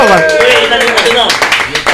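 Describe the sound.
Loud audience applause at the end of a show, with dense, irregular clapping, mixed with voices whooping and cheering over it, and sustained at a steady level for the whole clip.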